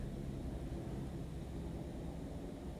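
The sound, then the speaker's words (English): A steady, low rumbling drone of a helicopter passing overhead, continuous and fairly even in loudness throughout, with no talking. “Can you hear the helicopter?”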